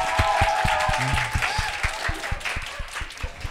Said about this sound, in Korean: 여러분 큰 박수를 부탁드립니다.